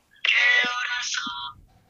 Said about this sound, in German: Das war mein Wecker.